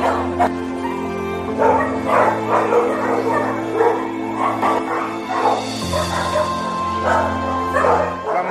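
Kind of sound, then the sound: animal, dogs barking and whimpering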